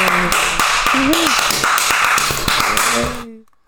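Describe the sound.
Rapid, loud hand clapping from one person trying to clap as long as possible, a power clap running steadily for about three seconds, a dense stream of sharp claps with voices whooping and talking over it, then cutting off abruptly.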